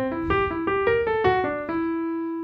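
A pitched instrument plays a quick, evenly spaced eighth-note triplet motif of about eight clear notes, ending on a held tone, moderately loud with no talking.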